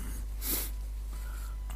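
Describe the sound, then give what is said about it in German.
A single short, breathy nose blow, a quick hissing burst of air through the nostrils, not loud, followed by a faint sniff and low background hum. “Entschuldigung, muss wir mal eben die Nase putzen.”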